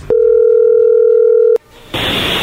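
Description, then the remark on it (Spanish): A loud, steady telephone dial tone of an outgoing call hums for about a second and a half, then cuts off with a click, followed by a stretch of hissy line noise. No one speaks. “A ver, vamos a llamarle a ver qué sucede”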